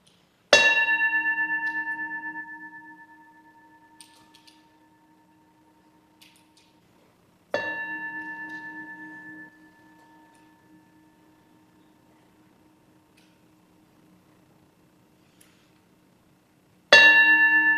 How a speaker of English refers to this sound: I hand you over into the care of Betsy Osterman, who will ring the bell to call us into worship